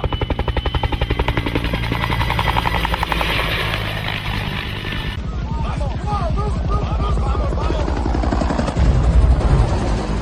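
A helicopter's rotor thumps loud in a fast, steady chop for the whole stretch, with rattling gunfire mixed in and indistinct voices rising faintly in the second half.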